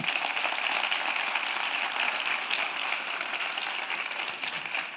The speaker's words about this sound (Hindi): ताली बजाना बहुत आसान है